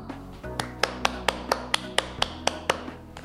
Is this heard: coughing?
no